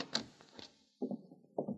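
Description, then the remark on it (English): A few sharp metallic clicks as a lock turns, then a door being pulled open with a couple of dull thumps. No one speaks. “It's unlocked now.”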